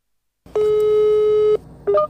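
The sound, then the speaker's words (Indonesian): A single long telephone ringback tone, heard while phoning a coach from Satya Wacana Salatiga, sounds for about a second, steady and clear, followed by a brief higher beep-like tone, with a low background hum and no talking. “yuk kita telepon aja oke okay, langsung”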